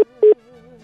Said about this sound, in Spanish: ahí debió haber apretado un botoncito del teléfono. Ya se nos cortó la llamada. Con el cachetito, con el cachetito.